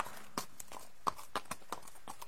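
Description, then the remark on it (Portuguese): A horse in a corral, just freed of its halter, stamps its hooves on hard ground, a quick, uneven series of sharp knocking strikes, with no voices around them. “E ele, como se me agradecesse, bateu as patas no chão e relinchou novamente.”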